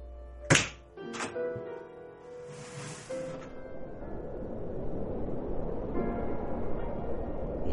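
A heavy door opens with a sharp, solid thunk, followed by a creaking scrape and a low, hollow rush of cold air that lingers steadily afterward. No one speaks.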